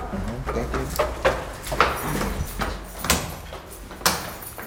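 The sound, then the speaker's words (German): Brisk footsteps of a woman climbing the stairwell of her parish office in Reutlingen, followed by a young man in a tracksuit jacket, in a quick, steady rhythm, each step a sharp knock against a faintly echoing background. “nimmt die Stufen im Treppenhaus ihres Pfarramts in Reutlingen mit schnellen Schritten.”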